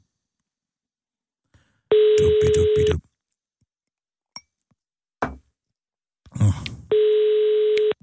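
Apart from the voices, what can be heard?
phone call ringing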